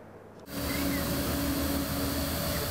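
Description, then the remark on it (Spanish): A steady, dense motor buzz kicks in abruptly after a brief quiet moment, then holds a constant whirring hum with a faint tonal whine, from an AR Drone quadcopter's four propellers spinning up; the unmanned drone is controlled by a smartphone or tablet over Wi-Fi. “Este objeto volador reta a la fuerza de gravedad con cuatro hélices. Se llama AR Drone.”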